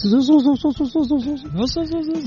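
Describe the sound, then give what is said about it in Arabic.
A voice mimics the AC compressor belt whistle of a 2014 Toyota FJ, heard when the air conditioning is switched on, with a quick run of wavering, squeaky tones, fairly loud, ending on one longer sustained whine over a faint airy hiss. “عندك اف جي تويوتا 2014 يقول فيها صوت بالكمبرسر لكنه يبرد ما في مشكله بس في صوت قل لنا الصوت كيف هل الصوت صفير في بعض الاحيان يكون الصوت لما تشغل المكيف صوت الصفير هذا اللي”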